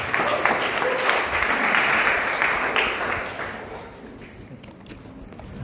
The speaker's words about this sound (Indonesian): Mari berikan tepuk tangan